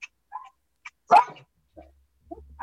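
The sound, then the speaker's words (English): Dogs bark in a few short, sharp bursts, one louder yip standing out in the middle, with brief quiet gaps between; no one speaks. “yeah, I don't know what they're barking at.”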